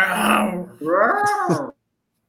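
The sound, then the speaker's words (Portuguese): A person voices a mock lion's roar in two loud, growling bursts, the second rising and falling in pitch before cutting off into silence, as a rallying roar for a football team to react. “Solta o rugido aí, pô.”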